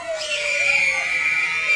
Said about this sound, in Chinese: 哦，谢谢，恐怖的尖叫！